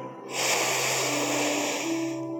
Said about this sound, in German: Rechts zügig einatmen.